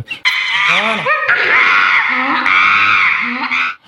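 Loud, harsh screeching calls, shrill, running almost nonstop for several seconds with quick rising and falling pitch sweeps, like excited monkeys shrieking.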